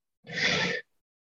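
A single deep breath during a heart-focused breathing exercise, a breathy whoosh lasting just over half a second, fairly clear, with silence before and after.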